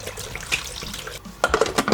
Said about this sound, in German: Wir geben jetzt Wasser in den Mixtopf und erhitzen das schon mal acht Minuten lang auf 50 Grad, damit das Wasser schon mal die Ausgangstemperatur hat.